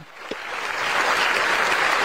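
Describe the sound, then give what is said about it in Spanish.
A crowd breaks into applause, the dense clapping swelling quickly from quiet and holding steady and fairly loud for a couple of seconds, with no voices heard. “Ah, usted también pide, usted también pide aplausos, ¿eh?”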